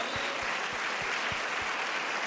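Steady applause from an audience in El Salvador for two leaders being thanked, a dense crackle of many hands clapping at an even, sustained level, with a few low thumps pulsing underneath at a regular beat.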